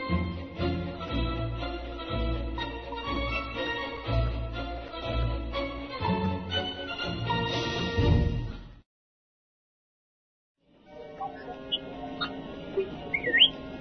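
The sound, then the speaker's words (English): After a loud, dense stretch of music and a brief silence, the Star Wars droid R2-D2 chirps out a quick series of high electronic beeps and rising, warbling whistles. “What is it, Artoo?”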